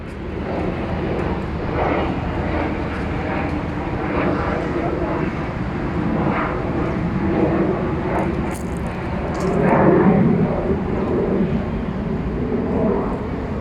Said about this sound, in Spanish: También aquí es usual que los aviones surquen el cielo sobre el famoso aeropuerto de la UDA, donde algunos estudiantes vuelan también, pero de otra manera. Estás de suerte, aquí viene uno.